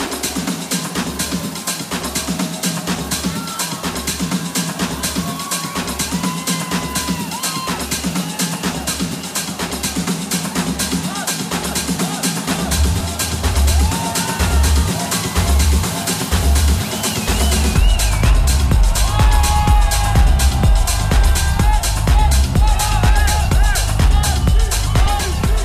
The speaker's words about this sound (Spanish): Dame un minuto, Diego, de estos, de estos gritos de esta gente, por favor.